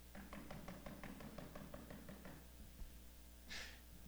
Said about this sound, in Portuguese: Ele não invade a vida de ninguém, mas ele está batendo na porta e dizendo: Vinde a mim, venha, cara, venha, venha,